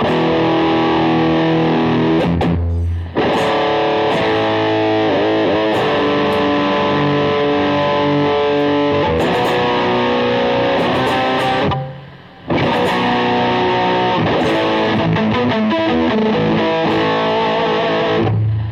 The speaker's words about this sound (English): I also have um, I also have the the pedals here as well. So let's let's check this out. Here's some EVH EVH overdrive.